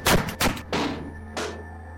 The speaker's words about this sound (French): Je prends conscience de tomber dans un piège et martèle le bouton d'arrêt d'urgence.